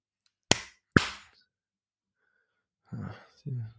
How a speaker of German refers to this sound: Ich klatsche mal ganz kurz in die Hand, dann siehst du nachher in der Spur, wo das ist, dann kannst du es rausschneiden, ja?